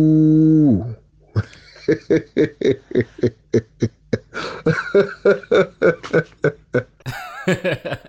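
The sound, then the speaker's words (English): A person briefly imitates a cow's moo with a low, sustained tone that drops in pitch, followed by several seconds of loud, rhythmic bursts of laughter. “um, I think maybe a cow. Uh, you know, the, the cow, it goes like, ooh.”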